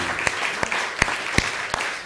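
A crowd claps steadily in a dense, continuous patter, applause dedicated to viewers across the United States, with a few sharper, louder claps standing out every fraction of a second. No one speaks.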